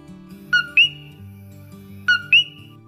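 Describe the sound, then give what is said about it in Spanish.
Coquí frogs call twice, each a clear two-note 'co-quí' with a low note and then a higher rising chirp, over a soft, steady low musical backdrop. “pero los sonidos de la congestión vehicular de la ciudad nunca pudieron ser tan dulces como los sonidos de los coquíes.”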